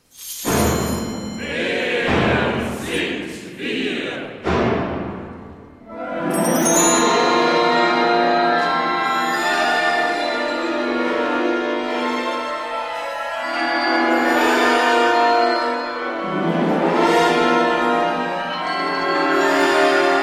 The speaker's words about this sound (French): Nous venons d'entendre le début d'Alleluia Oratorium Balbulum de Peter Rudveusch, qui va être donné le jeudi 18 janvier dans notre maison de la radio.